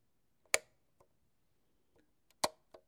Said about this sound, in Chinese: 这是开灯的声音